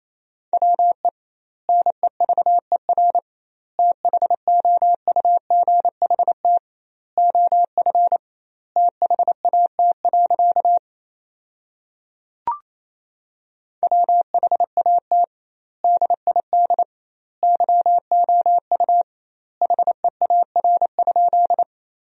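Rapid Morse code beeps at 28 words per minute with doubled word spacing, sending a sentence made from common words: a steady mid-pitched tone, clusters of short dots and dashes separated by wide pauses between words, loud and clean with no voices or background noise.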